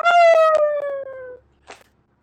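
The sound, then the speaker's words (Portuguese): A single howl from a small dog lying down in pain, loud, its long wavering tone sliding steadily downward for over a second before fading, followed by a brief softer noise. “Tô ouvindo esse cachorro uivando, tá me incomodando.”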